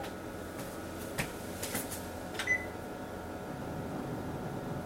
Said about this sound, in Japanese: 最近ピって言わないのかなこの電子レンジ自体もうねもう限界ほぼ限界なんですよ